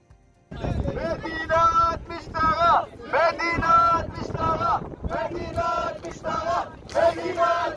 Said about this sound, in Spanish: son el foco de las noticias hoy tras la muerte de Salomón Taka por disparos de un policía en la zona de Haifa que derivaron en una noche de vandalismo, anarquía, ataques a y de la policía y destrucción de bienes y se escuchaban así.